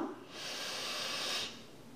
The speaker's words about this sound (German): Also, lass es uns nochmal gemeinsam wiederholen. Wir atmen tief durch die Nase ein, gemeinsam.